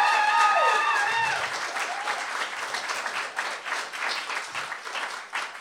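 A dense, sustained burst of audience applause at a live evening event, loud at the start and staying strong throughout, with a few brief cheers or whoops rising above the clapping early on.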